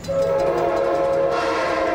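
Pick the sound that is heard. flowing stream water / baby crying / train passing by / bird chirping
train passing by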